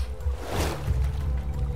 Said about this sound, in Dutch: De boot deint behoorlijk heen en weer.